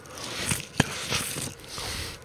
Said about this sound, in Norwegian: Er det greit at jeg spiser den før den smelter? Ja, ja, spis is ja. så lenge du ikke slafser på sendinga. Nei, jeg tenker jeg skal prøve å la være å gjøre det.